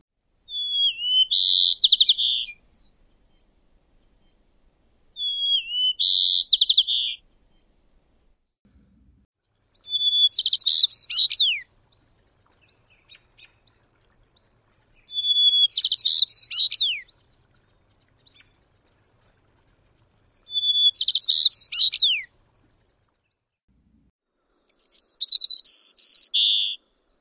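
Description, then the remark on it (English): Six white-crowned sparrow songs, each a clear whistled opening running into buzzy, jumbled trills, repeating every few seconds with slight variations, heard alone against a quiet background. “So here are a few variations of the white-crowned sparrow.”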